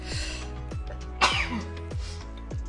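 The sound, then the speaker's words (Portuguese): A single sharp, explosive sneeze from allergies bursts out partway through, fairly loud, over a steady thumping musical beat that continues before and after it. “deixa de espirrar”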